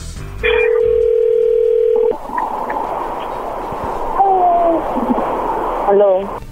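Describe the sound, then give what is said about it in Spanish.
A steady, loud telephone dial tone holds for over a second, then gives way to a hissy, crackling line with a few short gliding beeps as the number is dialed and the call connects. “Bueno, vamos a llamarle, vamos a ver qué pasa, a ver si te manda los chocolates a ti o no.”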